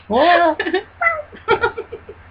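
A single drawn-out meow from a cat rises and falls, then quick bursts of laughter follow in short rhythmic pulses.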